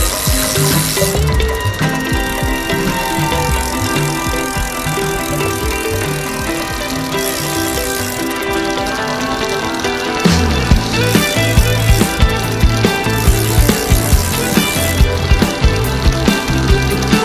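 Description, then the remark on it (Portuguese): A bicycle's freewheel ratchets and clicks as pedals turn, with a steady dense mechanical whir; in the second half the clicking becomes sharper and more rhythmic. “vamos tirar as teias de aranha da bicicleta, que está parada há tantos anos, vamos pôr os pés nos pedais e aí vamos nós.”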